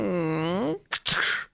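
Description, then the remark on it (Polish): A single voice imitates a closing door: a drawn-out, wavering creak followed by two short, breathy bursts standing in for the latch and thud. Fairly loud. “To był dźwięk zamykanej drzwi.”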